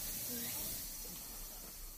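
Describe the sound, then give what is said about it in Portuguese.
An aburazemi, a large cicada 55 to 60 millimetres long, sings in a steady, unbroken sizzling buzz, much like hot oil frying in a pan, holding at a fairly soft, even level throughout. “Essa cigarra tem entre 55 e 60 milímetros e ela tem esse nome provavelmente porque o som do canto dessa cigarra lembra o óleo quando está quente numa panela de fritura.”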